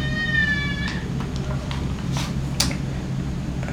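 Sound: baby crying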